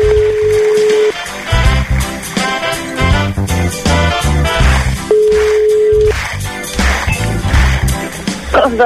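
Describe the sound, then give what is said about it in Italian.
A phone line's ringback tone sounds twice while calling a home number, each steady one-second beep followed by a four-second pause, heard over a busy, continuous background of music-like sound. “stiamo chiamando zia Elena e zia Carmela, risponde o l'una o l'altra”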